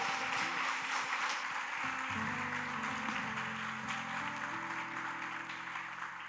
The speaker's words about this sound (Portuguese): Querido, aplauda o Senhor aí bem forte. Aleluia.